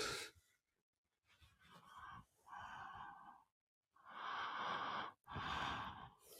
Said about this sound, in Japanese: 今、娘のいびきをお送りしました。全然夢見てるんじゃないと思うんだけどね。聞こえたハンガハンガ言ってる。